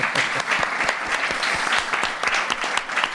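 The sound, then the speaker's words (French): An audience claps steadily, a dense patter of many hands that holds throughout without pause, applauding the person who made the show's jingles. “On peut l'applaudir aussi, elle est toujours là.”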